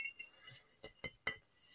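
A glass wine bottle holding bottled drinking water is set down on a hard surface: a few quick knocks and clinks, the last one ringing briefly with a bright glassy tone, over quiet background hiss.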